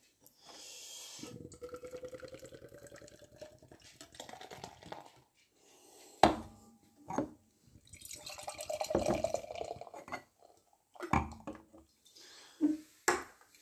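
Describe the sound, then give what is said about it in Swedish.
Beer is poured hard into glasses: a splashing, gurgling stream rises in pitch as the first glass fills, followed by a second vigorous pour and a few sharp clinks of glass. “Vi, vi öppnar och så försöker vi hälla upp här. Vi slår dem hyfsat hårt så vi lösgör mycket, mycket doft och smak.”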